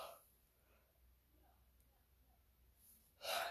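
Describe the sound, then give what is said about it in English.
A big yawn: soft breathy air over near silence, then a sudden loud, airy exhale bursting out at the very end. No one speaks. “Man, that was a big yawn.”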